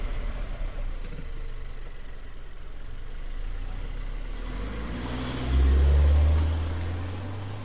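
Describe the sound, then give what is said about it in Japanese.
A Subaru Levorg car engine, in Shinjuku in front of the Subaru Building, runs steadily at idle, a low continuous rumble that swells louder for a couple of seconds as the engine revs up, then settles again. No voices. “そして今、私がいるのは新宿のスバルビルの前なんです、で今日はですねなんとスバルのレボーグ。もう今人気の車ですよねこの車でドライブします”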